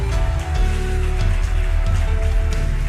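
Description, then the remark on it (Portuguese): An audience claps hands during a church service as people are called forward: a dense, steady patter of many overlapping claps, loud and unbroken throughout, with low sustained musical tones humming underneath. “Aproveita as palmas e vem.”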